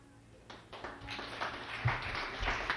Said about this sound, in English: I'm not done. It's save your clapping, or don't clap next.